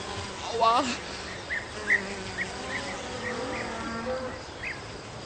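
Flies buzz steadily in the countryside, a droning hum that rises and falls as they circle, with a brief louder swell near the start and a few sharper passes later.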